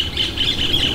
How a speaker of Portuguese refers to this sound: Olha o passarinho cantando, que coisa bonita.